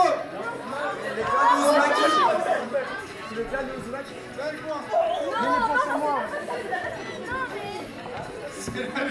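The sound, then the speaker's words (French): A quiz audience calls out the title of the answer all at once in a loud, overlapping burst of shouting and chatter that holds steady for several seconds, with individual words lost in the din. “Je pense que vous avez tous gueulez le un peu avec toute votre énergie, à je Je veux le titre, gueulez-le”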